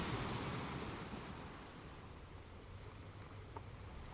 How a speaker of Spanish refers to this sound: Suelta tu aire frente a este mar y sigue observando cómo las olas van y vienen como si trajeran y llevaran energía.